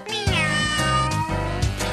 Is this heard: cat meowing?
yes